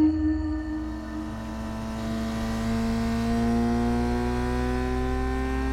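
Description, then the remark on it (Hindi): A steady, loud engine drone with rising harmonic tones: a motorcycle speeding along the Blue Way highway at night in bitter cold, continuous for the whole stretch with no voices. “अक्षय अपनी बाइक को बड़ी स्पीड से दौड़ाए जा रहा था”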